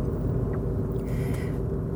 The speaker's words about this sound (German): bevor wir mit diesen, diesen Kernthemen anfangen, ähm, möchte ich hier so, äh, schon, mal, schon, schon mal einen kleinen Gedankensprung machen, denn ich sitze gerade im Auto.